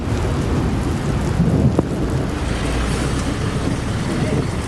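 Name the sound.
heavy rain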